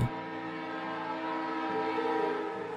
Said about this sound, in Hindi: कुछ देर के बाद हॉर्न मारते हुए वो ट्रेन स्टेशन पर आई